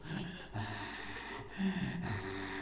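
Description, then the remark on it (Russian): A voice imitates the heavy, raspy breathing of a horror-film monster like those in the film Aliens: slow, loud wheezing inhales and exhales with a hoarse, rattling edge, running continuously without any speech. “Почему он так дышит?”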